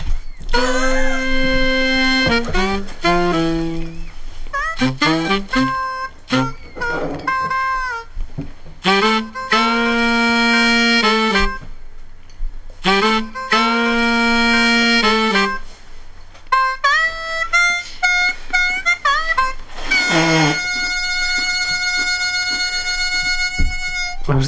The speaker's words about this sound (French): On re-jingle ou pas Ouais, redjingle